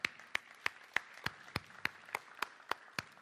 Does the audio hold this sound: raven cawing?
no